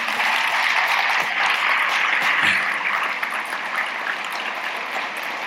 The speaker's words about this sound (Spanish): Vamos a mandarles un caluroso aplauso, por favor.